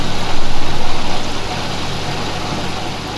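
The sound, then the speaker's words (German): A washing machine, just switched on, runs with a steady, loud mechanical drone: a low motor hum and vibration under a broad whirring hiss, swelling slightly in the first second, then holding even, with no voices. “Währenddessen stelle ich dann schon mal die Waschmaschine an.”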